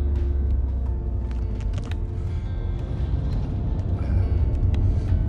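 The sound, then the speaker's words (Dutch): A large truck rolls by on the road, its deep engine rumble steady and loud for several seconds, with light rattling and road noise over the top. “Oh, een dikke vrachtwagen en aan de rechterkant fietsers.”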